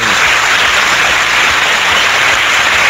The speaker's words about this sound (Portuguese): Vamos bater palmas.